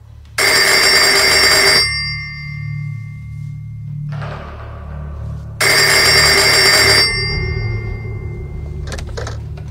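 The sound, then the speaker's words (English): A telephone rings in two long, loud bursts separated by a pause, the bright jangling bell standing out over a low steady hum, with softer muffled noise in between. “Fleeing the bakery, the sisters are stopped by a ringing phone, only this is a call that comes collect from the Twilight Zone.”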